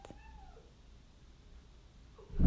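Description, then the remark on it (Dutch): Frum, a pet cat, comes jumping into the room and gives one short, soft meow that slides downward in pitch, followed by a quiet pause and then a muffled thump at the end. “Ondertussen komt Frum de kamer binnengesprongen. Frum is onze poes.”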